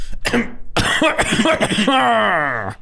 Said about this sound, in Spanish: Fred creyó oír a un hombre carraspear su garganta mientras él y Dolly estaban en la cama